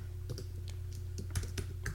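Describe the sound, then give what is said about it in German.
Quick keyboard typing of a search for "D10" on the Google page in a web browser, a run of light clicking keystrokes at an uneven pace over a steady low hum, with no voices. “gibt es die Möglichkeit einfach im Browser äh, auf der Google Seite nach D10 zu suchen.”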